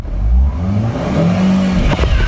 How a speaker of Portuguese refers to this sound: Embreagem e vai acelerando. Ah, se eu bater.